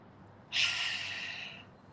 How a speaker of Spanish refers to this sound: Y una última vez, vamos a inhalar llenando todo nuestro cuerpo de oxígeno sostenemos la respiración y cuando ya no podamos más, vamos a exhalar por la boca.